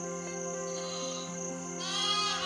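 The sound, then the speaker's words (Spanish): A sheep bleats in a long, wavering cry that swells louder toward the end, with no one talking. “Cerca de Belén había unos pastores que pasaban la noche en el campo cuidando sus ovejas.”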